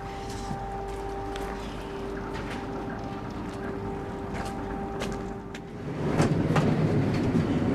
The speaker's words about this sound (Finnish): aika hyvin täällä vielä kuuluu noin tuosta yläkerrasta tuon myllyn äänet. Kyllä se tärisee läpi aika lailla, ei tuo paneeli paljon estä sitä ääntä.